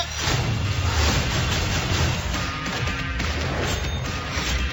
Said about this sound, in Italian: Tutti a terra, seduti. Esplosione!